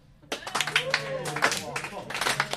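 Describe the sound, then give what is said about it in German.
A slow, steady clap repeats roughly every third of a second, fairly loud, with voices murmuring and laughing underneath throughout. “Also Slow Clap? Okay, wir machen einen Slow Clap.”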